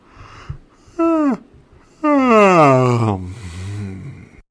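A short voiced groan, then a long, loud yawn whose pitch slides slowly downward and trails off into a breathy exhale, with no speech.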